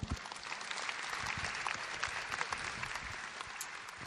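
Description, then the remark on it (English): Steady applause from an audience at the Opera House welcoming scenic and lighting designer David Finn to a Meet the Artist interview, dense overlapping claps holding at an even level for several seconds with no voices on top. “Please welcome him.”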